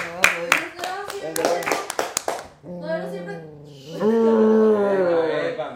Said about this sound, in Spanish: aplaudan conmigo.